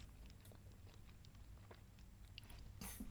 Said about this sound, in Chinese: 激情咀嚼了一番